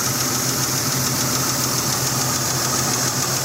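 A Jeep engine idles steadily, with a light, rapid ticking noise running through its low rumble and hum. No one speaks.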